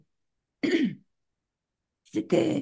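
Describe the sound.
A single rough throat clearing stands alone, followed by a second of silence before a person begins speaking.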